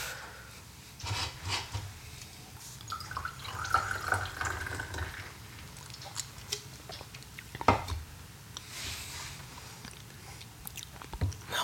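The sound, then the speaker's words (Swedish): Beer glugs and fizzes as it is poured into a glass, a steady liquid rush with soft foaming hiss, moderately quiet, with small clinks and handling noises and no talking. “Eh, jag har inte testat den, men jag tänkte säga det är ju så här jag brukar hälla upp.”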